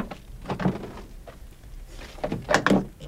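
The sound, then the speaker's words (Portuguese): One leaf of the heavy metal two-leaf rear door of a box truck, with a rectangular glass window, is unlatched and swung open with a couple of clunks and a scraping rattle, with no one speaking. “Ele abre uma porta,”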